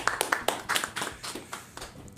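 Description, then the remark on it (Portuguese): A small audience claps for a couple of seconds for a speaker introduced as a first lieutenant of the São Paulo State Military Police and pilot of the Águia, of the Military Aviation Command; the sharp hand claps are scattered and slightly uneven, moderately loud, with no voices over them. “Uma salva de palmas aí para ele.”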